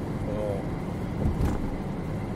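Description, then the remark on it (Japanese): Steady, loud low rumble of road noise inside a moving car on a bumpy road, continuous throughout, with a brief bump from a step in the road in the middle and a faint voice early on. “今めちゃくちゃ今ドカンってなったけど大丈夫なんでしょうかちゃんとちゃんと録音できできているか不明ですがまあそれもこれも含めてですねあのロードノイズであるとかその、まあ、道路がボコボコだからこの段差でねガタンとかなったやつが音質にどう影響するかみたいなところも”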